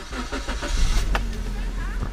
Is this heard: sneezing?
no